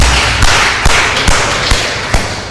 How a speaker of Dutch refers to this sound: Nou, laten we de vaders even een applaus geven, want het is vaderdag.